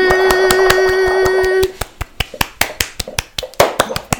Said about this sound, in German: Alle mal klatschen.